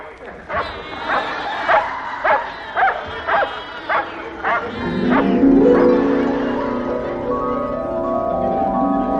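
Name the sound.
dog barking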